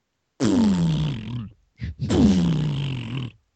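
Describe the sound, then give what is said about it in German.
A voice imitates glitchy, distorted, Atari-like electronic audio from a sound problem, with two loud, drawn-out growling bursts whose pitch slides downward, separated by a short broken stutter. “Hattest du auch gerade so, so, ein Tonproblem, …? Alter, …, was war das denn? Du warst gerade Atari oh no.”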